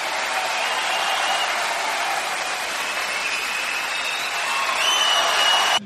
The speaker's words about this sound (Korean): 아, 웃음소리 배경 넣어드리겠습니다. 끝나자마자 콱콱 하고 웃고 박수 치는 그런 거.